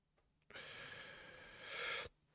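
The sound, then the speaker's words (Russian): One long, heavy puff of breath, a noisy exhale lasting about a second and a half and swelling louder just before it cuts off, with no talking. “Что ты пыхтишь?”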